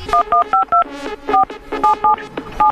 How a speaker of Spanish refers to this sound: Vamos a marcar a la tienda de mascotas a ver qué fue lo que pasó con tu perico. Adelante. Dale, márcale, ahí te va.